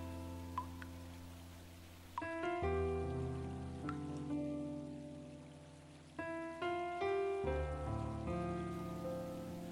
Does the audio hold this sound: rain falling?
yes